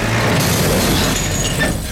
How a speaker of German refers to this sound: Der Feuerwehrmann setzt den Bulldozer in Gang, atmet tief durch und rumpelt los.